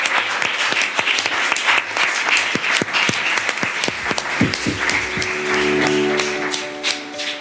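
An audience applauds the guests steadily for several seconds, a dense wash of clapping with some sharper individual claps, while a faint sustained musical tone rises underneath toward the end.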